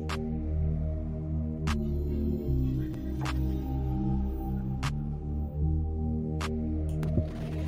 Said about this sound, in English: You hear that? That's the air conditioning.